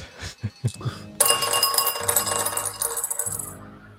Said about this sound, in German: Das heißt, du kannst deinen Schaden auswürfeln. Ja, das ist selbstverständlich D4 und Geschicklichkeit. Oh Mann, jetzt ist aber auch hier das ist fast schon Arbeit, das Würfeln.